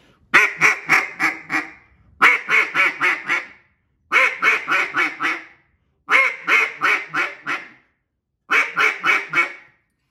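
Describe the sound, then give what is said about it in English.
A duck call blown in five quick bursts of fast, clipped clucks, each burst a rapid string of five or six notes, loud with short pauses between and no talking. “and that's kind of hitting that fast, quick little clucks.”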